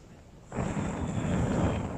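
A sudden, steady rush of breathy air starts partway in and continues as a person blows hard on a campfire to help the fire, with low rumbling underneath.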